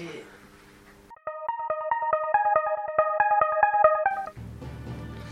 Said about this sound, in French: Bon, passons, s'il vous plaît, générique.